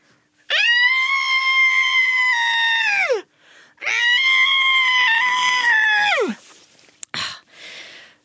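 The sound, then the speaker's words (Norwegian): A person imitates a large, powerful but very gentle elephant trumpeting, left arm outside the right arm and holding the nose: two long, loud, brassy blasts that hold steady and then slide downward at the end, followed by a brief click and a softer breathy trailing sound. “Og så kommer da altså det jeg mener er en ganske stor, kraftig, men veldig, veldig snill elefant.”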